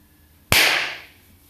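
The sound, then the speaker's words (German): One loud, sharp hand clap cracks out suddenly, followed by a bright, ringing tail that fades over about half a second. No one speaks, and the rest is quiet. “Das hat richtig geklatscht, das hat richtig gescheppert hier.”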